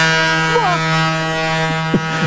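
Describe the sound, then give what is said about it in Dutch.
A loud, sustained tugboat horn on the Hudson in New York blares with a deep droning tone for the whole stretch, steady, with faint brief chirps or voices flickering over it. “Het, is, het is het geluid, het is het getoeter van eh, sleepboten op de Hudson.”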